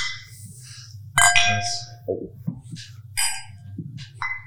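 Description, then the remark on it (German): Glasses clink together in a toast, several bright, ringing chimes at irregular intervals, each sharp strike followed by a short shimmering ring, over a low steady hum. “Dann ähm, vielleicht stoßen wir erstmal an, bevor es äh, in Media Space geht.”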